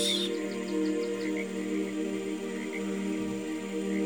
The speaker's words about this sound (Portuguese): Perceba a alegria dessa nova manhã através da natureza que te rodeia. esse mesmo canto alegre dos passarinhos.